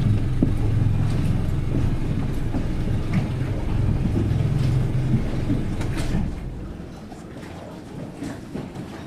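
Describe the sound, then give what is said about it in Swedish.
A boat motor drones steadily with a heavy low rumble and faint rattling, then is shut off about two-thirds of the way through, leaving a much quieter background. “Okej, jag måste stänga motorn.”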